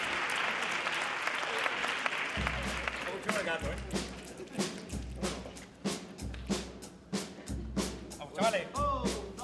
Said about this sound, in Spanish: Aplauso moderno. Aplauso moderno.